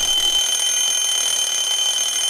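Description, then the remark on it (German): An alarm clock rings loudly, a continuous shrill electronic tone that holds steady for the whole moment with no voices over it. “Jetzt ja. Jetzt bist du wach.”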